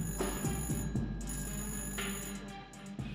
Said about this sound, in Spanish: En esta casa llena de música, suena un teléfono. Es la llamada de una joven hija de inmigrantes que ahora vive en Estados Unidos.